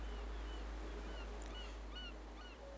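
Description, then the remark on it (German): Seagulls call faintly in the background over clear sea water, several thin rising and falling cries spread across a steady low rumble of wind or surf in a sea breeze, with no one speaking. “Du hörst die Möwen im Hintergrund”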